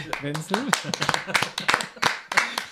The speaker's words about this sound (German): Das, äh, äh das könnte man jetzt mal so ein bisschen Applaus einbinden.